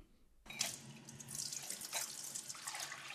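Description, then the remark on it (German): A tap turns on abruptly and water runs steadily into a sink, a broad hissing splash with shifting clinks and splatters as dishes are washed, no voices. “Unerwartete Gedanken beim Geschirrabwasch.”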